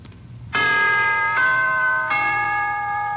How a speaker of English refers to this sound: To put it in musical form, here is a holiday wish from the NBC Chimes.